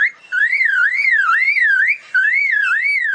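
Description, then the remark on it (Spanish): A bird imitates a car alarm, a loud, clear warbling tone that sweeps up and down rapidly in two sustained bursts separated by a brief pause, with no one talking. “Con ustedes, el pajarraco imitando alarmas de autos.”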